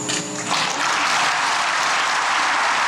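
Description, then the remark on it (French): Sustained applause from a large crowd after the French president's speech declaring that France has a debt toward French Polynesia, a dense wash of clapping that swells quickly after a brief voice and holds steady and loud throughout. “Mais une reconnaissance de dette n'est pas une demande de pardon, des excuses tant espérées par les associations derrière les applaudissements de ce soir”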